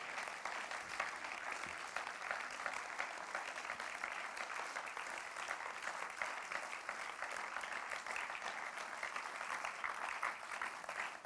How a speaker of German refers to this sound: Tut ihn doch mit einem ganz warmen Applaus hier hoch auf die Bühne, bitte.